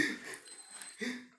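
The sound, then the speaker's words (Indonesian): An alarm clock rings with a bright, insistent electronic tone, two bursts separated by a short gap, fairly loud with no one speaking over it. “jam jam jam”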